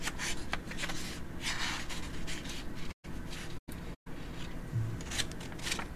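Rats munching and scratching: a steady stream of tiny gnawing, crunching and scraping sounds, quick and irregular, over a low background hum with a few abrupt brief silences.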